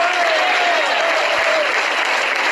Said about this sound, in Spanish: después ese aplauso al Señor Al Señor ese aplauso.